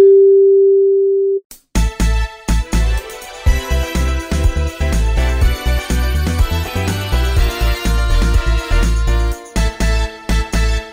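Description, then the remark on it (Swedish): A steady, mid-pitched electronic beep holds for about a second and a half, like a voicemail tone, then cuts off as loud, punchy music with heavy bass kicks in and plays on. “Vi kan tyvärr inte ta emot ditt samtal just nu, men lämna ett meddelande efter pipet så hör vi av oss.”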